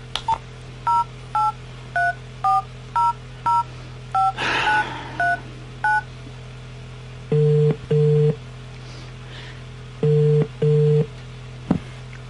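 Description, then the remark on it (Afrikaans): A quick run of keypad dialing beeps gives way to a phone ringing on the line: two double-pulse ring tones with a pause between, and nobody picks up; the call does not go to voicemail. No voices are heard. “Nee, haar foon lui net. Dit gaan nie voicemail toe nie.”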